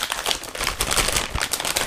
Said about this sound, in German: Ähm, der hier ist aus Gummisilikon, den kann man natürlich auch so verwenden. Aber der ist halt schon wirklich weich, also den kann man schon sehr, sehr kneten in der Hand. Ich pack den mal in die Tüte zurück.